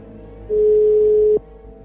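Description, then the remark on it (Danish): A single steady telephone ringing tone sounds for just under a second as a number is dialled late at night from a newsroom, a clear, loud electronic beep over faint background hiss, then cuts off abruptly as the call is answered. “at jeg vil forsøge at taste Sebastian Kleins nummer ind. Så det gør jeg. Og så sker det uventet. Telefonen bliver taget.”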